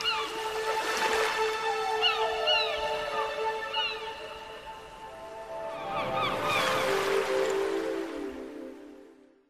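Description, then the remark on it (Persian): Ducks and swans swimming on a lake in a park call repeatedly, with nasal honks and quacks coming in two lively bursts and a brief splash of water, clear, with no one talking. “این پنجره رو به یک بوستان بود که دریاچه زیبا داشت مرغابی ها و قوها در دریاچه شنا میکردند و کودکان با های تفریحشان در آب سرگرم بودند”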